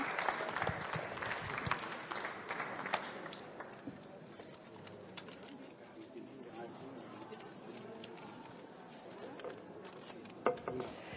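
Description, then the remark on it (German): Audience applause thanking a speaker after a talk, a dense patter of clapping that is loudest at the start and thins slightly over time, continuing steadily for about eleven seconds with a few sharper claps near the end. “Einen großen Beifall noch einmal für dich und herzlichen Dank.”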